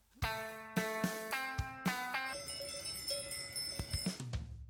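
Livestock bells (cowbells) clank repeatedly in an uneven rhythm, bright metallic strikes with ringing overtones overlapping one another, with no voices.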